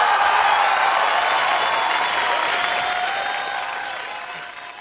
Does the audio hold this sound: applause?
yes